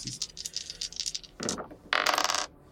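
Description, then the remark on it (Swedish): Dice rattle and clatter across a hard tabletop in a quick burst of sharp clicks, then a second, louder tumble before they settle. Crisp, with no voices. “Slå ett slag för att ta krafter.”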